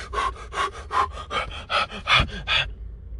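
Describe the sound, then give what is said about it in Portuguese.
Quick, rhythmic panting by a person, about nine sharp breaths in under three seconds, fairly loud, with no talking, then it stops abruptly into quiet. “Você tem que voltar à sua respiração normal. Você não pode ficar o tempo inteiro”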